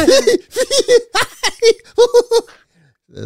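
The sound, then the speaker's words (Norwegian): A voice imitates a party leader's laugh with a quick run of about ten rhythmic, voiced 'ha' bursts, fairly loud, ending in a brief quiet breath. “Så altså, nå skal du dør til dør og imitere latteren til han der eh, partilederen din.”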